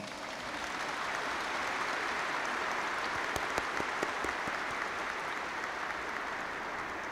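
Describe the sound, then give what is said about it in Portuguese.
Steady applause from a crowd welcoming a priest celebrating 60 years of religious life, a dense, even patter of many hands clapping throughout, with a few sharper individual claps standing out midway, and no talking. “celebrando 60 anos de vida religiosa, com uma grande salva de palmas.”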